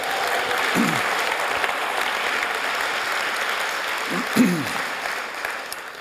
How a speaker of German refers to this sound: Gib ihm doch auch mal einen Applaus.